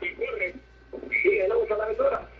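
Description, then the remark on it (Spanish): A caller's radio playing in the background of a phone call, its voice thin and muffled through the line, talking continuously for a couple of seconds at moderate loudness. “Sí, baja el volumen de tu radio.”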